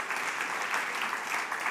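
A crowd applauds a dance team steadily, a dense, even wash of many hands clapping at once with no pauses, holding a consistent level throughout the short stretch.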